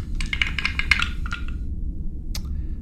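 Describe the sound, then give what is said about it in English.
A quick flurry of hard clicks and rattles as dice, which have little symbols marking the ones, tumble across a table, settling within about a second, then one more sharp click a moment later over a low steady hum. “These dice have little symbols for the ones, so I wasn't sure there for a second.”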